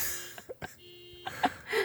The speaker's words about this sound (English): the car alarm.